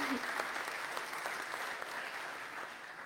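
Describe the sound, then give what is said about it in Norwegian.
An audience at a church service applauds steadily for its eldest member, aged over 95, dense clapping filling the whole stretch at an even, moderate level with individual claps flickering through the wash. “En applaus for ham.”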